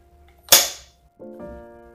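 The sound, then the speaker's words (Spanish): A small advent calendar window door, window number 7, snaps shut with one sharp, crisp click that rings out briefly, followed by a soft, steady tone lingering for a moment afterward. “Y ya como no hay nada más aquí en la ventanita número 7, pues vamos a cerrar la puerta.”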